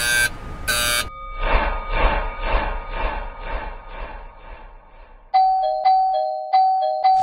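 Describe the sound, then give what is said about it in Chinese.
An apartment doorbell rings insistently: two harsh buzzes, a fast string of about eight buzzing pulses, then a loud electronic chime repeating its two-note ding several times. No one speaks. “想到小时候我也会去乱按门铃，再说次数没有很频繁，我就没有太在意了。”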